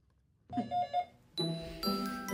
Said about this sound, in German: Bei mir klingeln jetzt Halloween, Kinder.